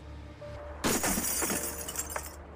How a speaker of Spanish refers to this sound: ¿Por qué no intentamos eliminar ese vidrio oscuro de la ventana para tener una mejor vista del interior? Y utilizaron la poderosa garra del robot para romper el vidrio.